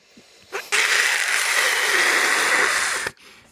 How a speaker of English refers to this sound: and everybody just sort of jumped up in unison and suddenly there was a loud screeching outside.